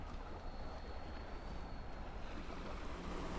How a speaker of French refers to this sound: Dans la salle des machines, le bruit de la pluie, du vent et des vagues au dehors était bien plus fort.